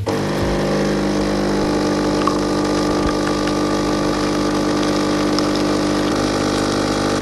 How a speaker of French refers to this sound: le, café, c'est la première chose qu'on entend le bruit euh, le matin en fait.